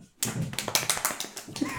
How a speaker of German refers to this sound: Also die haben jetzt so die Unterarme aneinander gehalten, also so als ob man sich die Hände schüttelt, aber dann ein bisschen weiter nach vorne rutscht und sich dann auf den Unterarm klopft. Wie so ein Fischschwanz. Und dann klingt das so.